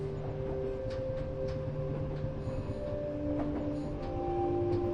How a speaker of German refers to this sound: spürst eine tiefe Verbundenheit mit der Natur, während der Zug ruhig und gleichmäßig dahin gleitet.